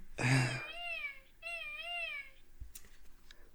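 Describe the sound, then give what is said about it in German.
A person's voice mimics a cartoon mole's squeaky noises: a brief burst, then two long, wavering high-pitched warbles, fairly loud, followed by a few faint clicks. “Ich, hab, ich kann auch andere Geräusche von ihm nachmachen.”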